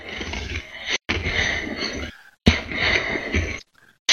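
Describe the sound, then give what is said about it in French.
Loud breaths blasting straight into the microphone, two long rasping exhales with a sharp intake between them, harsh and breathy like heavy panting. “On entend tout, toute ta respiration.”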